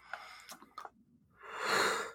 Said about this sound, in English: Yep. I'm yawning, dude.